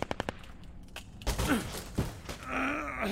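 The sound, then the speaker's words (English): A rapid run of sharp knocks and thuds, then effortful grunting and groaning as someone strains hard to force open a heavy, thick door, with a faint creak. “Hey, give me a hand with the door.”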